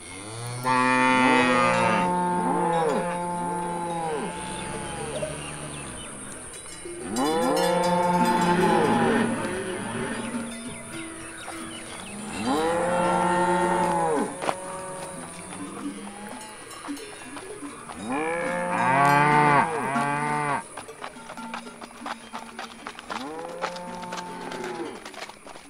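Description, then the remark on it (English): A herd of cattle moos repeatedly and restlessly, long overlapping bellows rising and falling in waves, several animals calling at once, loud, with a steady high hum underneath. “There's something after those cattle.”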